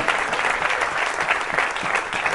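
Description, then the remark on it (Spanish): Loud, sustained applause from a large gathering, a dense wash of many hands clapping steadily without pause, full for a couple of seconds. “El aplauso fuerte, aleluya.”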